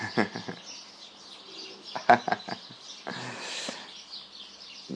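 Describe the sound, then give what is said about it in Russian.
Birds chirp outside an open window in short, scattered bursts of quick calls, moderately loud, with a steady airy background hiss and a brief rushing noise partway through. “Наверное, надо перекрыть окно, потому что просто Тут птицы балуются.”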